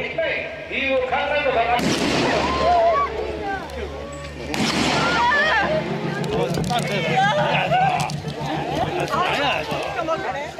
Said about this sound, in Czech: Dva výstřely zasáhly Šinza Abe ze zadu, jeden výstřel tedy mířil podle policie na krk, další na srdce, no a později se ukázalo, že právě ten druhý na srdce, tak ten byl fatální.